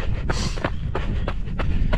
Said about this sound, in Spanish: Tú podrías bajar muy rápido con, un pulso relativamente bajo, pero la percepción de tu esfuerzo sería alta. Entonces ahora corriendo cuesta abajo, pues